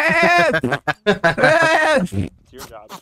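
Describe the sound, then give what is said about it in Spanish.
A person imitates a goat's bleating with several wavering, nasal, loud vocal bursts in quick succession, ending with a softer trailing bleat. “o te hace como las cabras. Son las llamas. Las llamas, Las cabras así hacen.”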